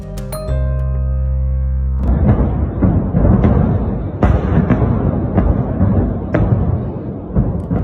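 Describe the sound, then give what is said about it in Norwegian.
A brief sustained tone gives way to dense battlefield rumble from the front line at Bakhmut in Donbas, Ukraine, in winter with snow on the ground. Sharp bangs and blasts crack through at irregular intervals, loud, with no voices. “Vi hører lyd fra fronten i Ukraina. Det er fra Bakhmut i Donbas.”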